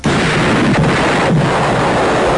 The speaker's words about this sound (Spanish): ¡Explosión!